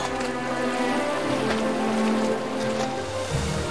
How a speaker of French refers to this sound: Robinson fait le tour du bateau à la nage.